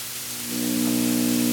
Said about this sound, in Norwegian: Sorry for um denne u, durelyden i bakgrunnen. Det er en sånn jævla aircondition som driver